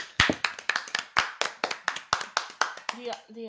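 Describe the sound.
Brief applause of steady, evenly spaced hand claps, about a dozen sharp loud smacks in a quick rhythm, with a voice starting to speak as the clapping ends.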